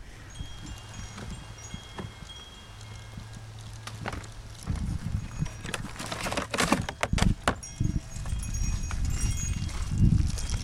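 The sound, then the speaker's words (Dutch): Footsteps crunch along an outdoor cemetery path toward a grave at a steady walking pace on a sunny, windy autumn day with many fallen leaves on the graves, with scattered rustling and scuffing under a low background hum; no one speaks. “de moeder van Maya, loop ik eh, naar het graf”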